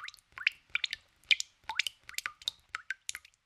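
A rapid run of water drops plinking one after another, bright and close, with a quick irregular rhythm of about a dozen drips and no voices.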